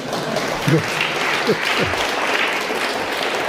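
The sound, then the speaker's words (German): A crowd applauds in a dense, steady wash of clapping that holds for several seconds, with a few brief voices calling out over the noise. “Jetzt nochmal den Applaus, das wäre.”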